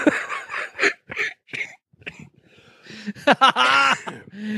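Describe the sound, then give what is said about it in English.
A run of short, sharp coughs, several bursts in quick succession, followed by a longer strained, voiced sound like a wheezy laugh or throat noise. “That was a chronic cough that I actually went with that too.”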